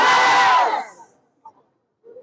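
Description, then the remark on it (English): A crowd of many voices erupts in a loud, sustained shout of "Jesus" for under a second, then fades quickly, leaving near silence with a couple of faint, brief murmurs afterward. “Those who think you are dishonorable today, as you are shouting Jesus, a certain anointing is hitting you now.”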